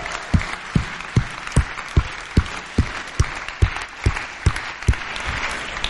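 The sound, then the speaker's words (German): A church crowd applauds people new to the church in a steady, rhythmic clap-along, with loud, evenly spaced beats about every 0.4 seconds over a dense wash of scattered clapping, continuing without talk. “Hey, lass uns den Leuten fetten Applaus geben, weil ihr seid absolute Helden.”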